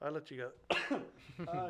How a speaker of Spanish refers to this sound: Estoy a punto de estornudar, disculpen ustedes.